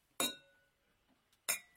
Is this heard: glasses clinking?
yes